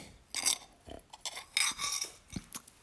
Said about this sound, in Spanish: Cada uno se toma en su casa, yo me estoy tomando aquí un vaso de colacao como todas las mañanas. Un vaso de leche con colacao. Permitidme un sorbito.